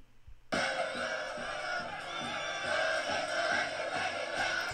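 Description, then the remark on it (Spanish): A large crowd of León football fans cheers and chants continuously below the team bus, celebrating, heard from inside the bus; a dense roar of many voices that starts abruptly and stays loud and steady throughout. “Así se veía desde arriba. Con toda la porra de León abajo. Ahí celebrando.”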